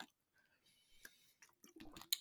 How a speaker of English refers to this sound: Um, excuse me there, just taking a sip of water.